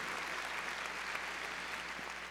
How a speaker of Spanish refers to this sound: Gloria a nuestro Señor. las palmas fuertes a nuestro Señor. Muy bien.